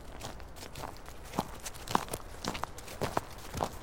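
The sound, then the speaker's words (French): Steady footsteps walk at an unhurried pace over rustling forest ground, each step a soft crunch, alone with no voices. “Pipo marche tranquillement dans la forêt”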